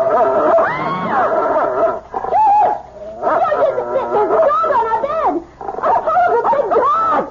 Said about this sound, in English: It's only a dog, for Pete's sake. He's not going to hurt you.